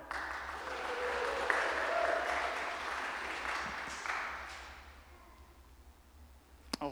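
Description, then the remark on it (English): People applaud, a steady wash of clapping that swells over the first couple of seconds, holds, then gradually thins out and fades near the end. They are applauding a reader who is about to read Romans 8. “Let's give it up for”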